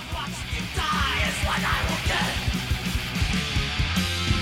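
A loud, dense thrash metal song with distorted guitars, rapid pounding drums, and a harsh shouted vocal running over the top throughout.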